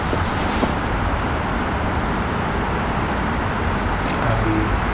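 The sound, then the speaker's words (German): Steady, dense road traffic on a road directly beside the listeners rumbles without a break, a broad low roar with faint hiss above. It holds at an even loudness for the whole clip, and no voices are heard. “Die Straße ist natürlich sehr präsent, also Ja. direkt neben uns.”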